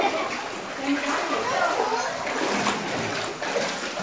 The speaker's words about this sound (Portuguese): O pessoal tá tirando água de dentro de casa.